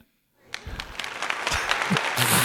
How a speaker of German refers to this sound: Genau, ein Applaus sowas.